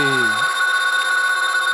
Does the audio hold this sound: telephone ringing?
yes